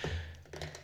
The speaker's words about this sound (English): Oh, sorry, that noise was me dropping my highlighter.